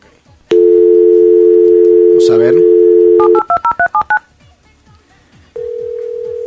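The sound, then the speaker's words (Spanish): A steady telephone dial tone sounds, cut by a brief rustle, then a quick run of about six touch-tone keypad beeps as someone dials to call a model, followed by a single steady ringback-style tone near the end. “Vamos de una vez a llamar la modelo a la modelo del mes de agosto”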